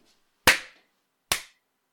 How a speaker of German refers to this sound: Schneiden wir es raus oder lassen wir es so? Ähm, ich schneide ich, ich, ich klatsch mal und ähm, okay. überleg's mir dann, ob ich es rausschneide.